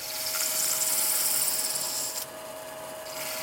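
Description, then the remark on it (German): Steady hissing abrasion of hand-held sandpaper against a brass pocket-compass housing spinning on a lathe, giving it a sunburst finish, with a constant machine hum underneath; the rasping drops away briefly near the end, then resumes. “Dann nimmt er Schleifpapier in die Hand und verpasst dem Gehäuse damit einen ganz besonderen Schliff.”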